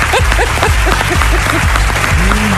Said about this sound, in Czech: Já smazala prezentaci kolegyni z práce, použila jsem ji jako vzor pro svou a uložila. Nikdo o tom neví, ale to si myslím, že, že si zaslouží potlesk.